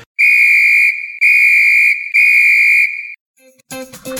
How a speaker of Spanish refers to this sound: Por favor, coge el silbato y pita.